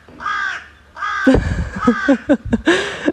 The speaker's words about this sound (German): Falls du diesen Vogel gehört hast, das haben wir so abgesprochen.